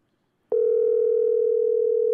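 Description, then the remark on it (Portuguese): After a brief silence, a telephone ringing tone starts while a call is placed, waiting to see if the other person answers: one steady, loud, mid-pitched electronic hum that holds unbroken to the end, with no voices over it. “Tá, vamos ver se ele atende.”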